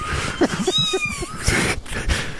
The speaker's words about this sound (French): Oh! Moi, souvent chez moi, là, je, je, laisse jouer ça des sons de chat qui miaulent comme ça.